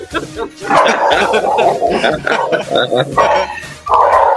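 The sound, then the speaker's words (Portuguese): A pet dog barks excitedly in rapid, repeated bursts, loud, tangled with people's voices and laughter for the whole stretch. “Meu cachorro ficou maluco.”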